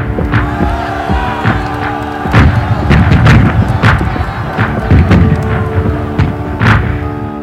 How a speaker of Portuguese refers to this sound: artilharia também abriu fogo contra Monte Cassino, com disparos em meio aos aplausos e gritos de comemoração das tropas aliadas.